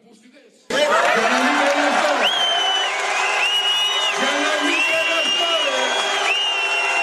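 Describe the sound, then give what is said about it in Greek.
A crowd bursts into loud, sustained applause after a brief quiet opening, following a speaker's remark, with cheers and chants of "President, yes, mayor, yes!" rising and falling over the steady clapping until the end. “καταλάβατε όμως τι είπε, το έχετε διαβάσει παντού, ακολούθησε χειροκρότημα.”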